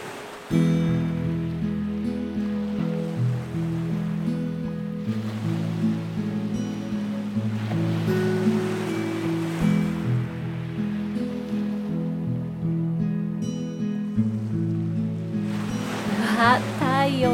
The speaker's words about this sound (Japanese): よーく耳を澄ましてみて波の音が聞こえてくるよ。